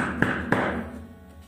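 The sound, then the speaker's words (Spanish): Two firm knocks on a house door, made with a hand full of rings, evenly spaced about a third of a second apart, fairly loud, each trailing off in a short resonant ring. No one speaks. “Golpeó la puerta con las manos llenas de anillos.”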